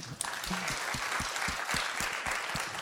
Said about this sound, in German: Applaus dafür bitte.